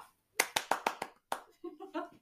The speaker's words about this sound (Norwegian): Applaus, applaus.